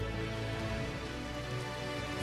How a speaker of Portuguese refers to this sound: Quem pode aplaudir bem forte a é ele aí?